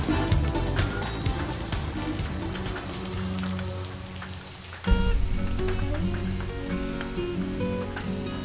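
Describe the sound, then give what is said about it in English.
Steady rain patters and ticks against a window, a dense, continuous spray of tiny taps over a low humming background, with a brief dip and swell midway. “And your hips begin that slow and rhythmic sliding, counting the last few seconds ticking against the window in the rain.”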